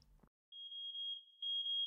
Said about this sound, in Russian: Внимание, пожарная тревога. Срочно покиньте помещение.